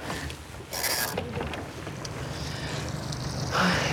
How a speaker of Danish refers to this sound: nu sejler vi så ud i øh, gummibåden her, og så er planen, at jeg skal over i hendes båd.